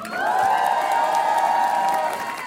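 A live concert audience on France Inter's Côté Club cheers and applauds loudly and steadily for the singer's DJ, with a sustained high-pitched whoop ringing above the dense clapping throughout.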